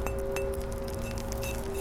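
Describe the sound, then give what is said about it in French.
Stone is struck sharply, twice in quick succession, and rings like a bell: a steady mid-pitched tone hangs on evenly for nearly two seconds over a faint background hiss. “Généralement, ça sonne comme une cloche hein, en deux. Ça sonne très bien.”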